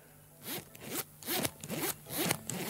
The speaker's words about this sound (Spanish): Empezamos con una cremallera. Atención, este es el ruido que hace una cremallera.